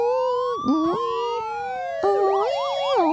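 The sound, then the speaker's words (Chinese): A loud siren of a red fire engine with no talking: a steady tone first slides slowly downward in pitch, then switches to a quick, repeating rise-and-fall warble. “忽然间，一辆红色的消防车从另一条街冲了出来，就在离阿乐不远的地方停下来了。”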